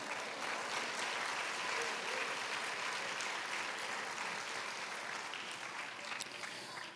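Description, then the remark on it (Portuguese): A crowd at a worship service applauds steadily for several seconds to praise God, a dense, continuous wash of clapping from many hands that fades slightly toward the end, with no one speaking. “Você pode dar um glória a Deus aí bem forte e aplaudir o Senhor mais uma vez por isso?”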